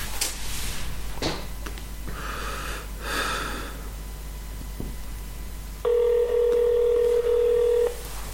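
Telephone dialing a call to France: a few short clicks and soft bursts of noise, then a single steady, mid-pitched ringing tone that sounds loudly for about two seconds before cutting off. No one speaks.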